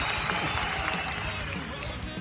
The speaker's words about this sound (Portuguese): Palmas, sobe palmas aí, virtuais.